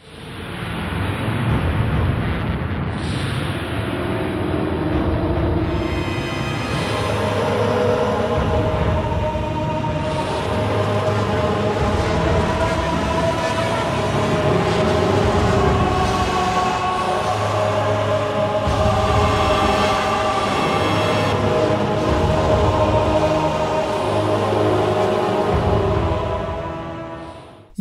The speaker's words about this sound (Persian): صدای یه جورایی صدایی میشه گفت تکنولوژی هم توشه انگار یه کارخونه راهباست یه صدای خیلی عجیب غریبی که مثلا صنعتی و معنویه